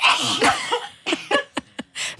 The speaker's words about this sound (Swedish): En dubbelnys. Ja, det var en bra nysning. Oj, oj, oj. hela mixerbordet blev blött där.